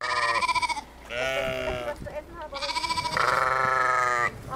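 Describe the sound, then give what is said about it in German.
Several sheep grazing among dozens of plastic stakes fluttering with red-and-white ribbons at the Hanswarft bleat loudly, overlapping calls in quick succession with wavering, vibrato-like tones, separated by brief pauses; no talking is heard. “Schafe grasen zwischen Dutzenden Plastikstäben, die dicht an dicht in der Erde stecken.”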